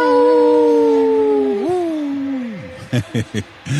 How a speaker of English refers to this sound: Howling for Wolves, protecting wolves for future generations. Howl.